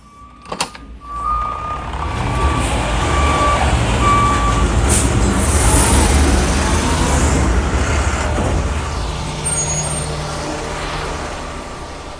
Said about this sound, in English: Ah, hear that? Got a garbage truck in the alley again.